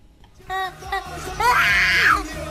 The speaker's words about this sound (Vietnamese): đứa bé chỉ mới 4 tuổi con chị thường xuyên khóc thét lên giữa đêm vì tiếng nhạc dội sang quá lớn